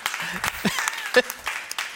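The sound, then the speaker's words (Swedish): Light, scattered applause from an audience: a handful of sharp claps spread unevenly over a couple of seconds, with some murmuring voices and laughter in the background. “Okej, okay, alla som tror att det är sant applåderar.”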